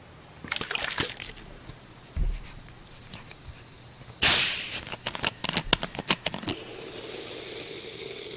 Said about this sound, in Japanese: 炭酸炭酸の音